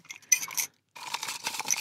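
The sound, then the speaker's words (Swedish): Dry rustling and shuffling of paper slips with written questions in a jar as one is drawn out to be read aloud, two short bursts of rummaging separated by a brief pause, with faint glassy clinks, no voices. “från den burken kommer Vanja dra ut en fråga och läsa upp”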